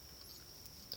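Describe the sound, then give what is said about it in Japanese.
Bell crickets chirp steadily and faintly at night, a continuous high ringing trill with a slightly brighter burst near the end, heard at a home outside the city centre. Nobody speaks. “今日もね、夜の収録録音収録っていうのかな収録なので、スズムシの声が”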